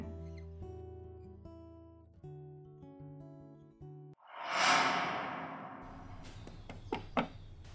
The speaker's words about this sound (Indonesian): Kemudian terdengar suara ketukan pintu dari luar.